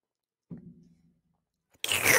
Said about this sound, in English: Um, I'm gonna drink a little bit of water.